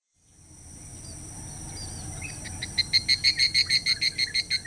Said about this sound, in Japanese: 山道には夏草が茂っており、セミが鳴いていた。